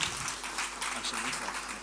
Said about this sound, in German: Und ähm, lasst uns einfach einen mega Applaus geben. Ein bisschen, nicht zu laut, nicht zu laut.